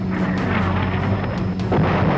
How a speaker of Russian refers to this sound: Ой, что это? Взрывы! Нас так трясет! Кажется, нас подбили!